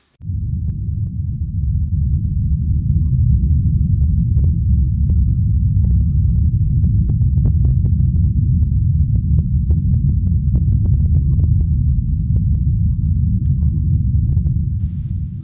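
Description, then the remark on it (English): A deep, continuous low-frequency rumble, recorded by scientists deep in a borehole in the earth, drones steadily for the whole stretch, loud and dense, with faint scattered crackles and clicks flickering above it and no voices. “She said that some people have compared the recording to hell, but others say it feels and sounds like the earth breathing.”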